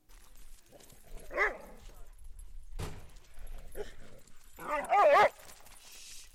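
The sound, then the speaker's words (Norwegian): Eleven excited dogs, just let out of a car in Bergen for a dog daycare's walk in the forest, yelp, bark and whine in short bursts, with a sharp thump midway and a louder, rising chorus of whining near the end. “Det der det er lyden av elleve ivrige hunder som akkurat har kommet ut av bilen.”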